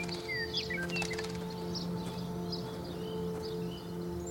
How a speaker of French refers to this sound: Puis vous écoutez tout autour de vous cet environnement présent. Le chant des oiseaux, peut-être y a-t-il plusieurs champs, plusieurs espèces qui virevolent tout autour de vous.